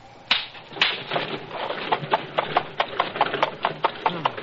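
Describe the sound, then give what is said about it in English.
Horse hooves clop in a steady, quickening rhythm as a carriage driver drives the carriage off, the sharp knocks strong at first with a faint rumble of wheels beneath, no voices. “You'd think the devil was after him the way he drove off.”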